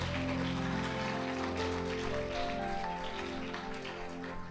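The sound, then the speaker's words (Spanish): A large crowd claps loudly and continuously in applause for the Lord, a dense wash of clapping lasting several seconds, with sustained musical chords held steadily underneath. “Amén, denle un aplauso bien fuerte al Señor, que sea libre, gloria a Dios.”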